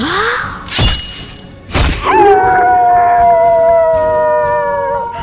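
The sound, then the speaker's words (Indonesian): Two dull thuds, then a loud, drawn-out howl of pain from a wolf accidentally pricked by sharp thorns, one sustained wavering cry that holds for several seconds before fading, with no talking. “aduh, aduh, aduh sakit! Teriak serigala.”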